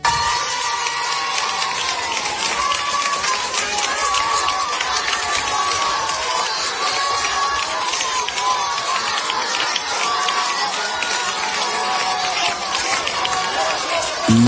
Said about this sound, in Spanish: Eso sí, en esta ocasión, su banda sonora ha sido algo diferente. No había niños corriendo, ni gritando tampoco. Ahora retumbaban los aplausos y eran precisamente para él.